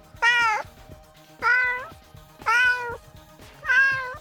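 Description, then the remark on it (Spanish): A cat meows four times in a steady rhythm, each call drawn out and clear, with nothing else around it. “Trataba de, no hacerles esa SRM de, gatito.”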